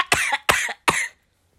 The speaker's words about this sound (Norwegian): Jeg beklager hostinga mi.